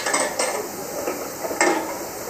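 Scraping and clattering inside a cannon-like cast-iron pressure cooker used for rice, as a small stick and a cloth clean out the last residue, with a few sharper metallic knocks over a steady scratchy rustle. No one speaks.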